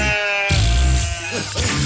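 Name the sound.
sheep bleating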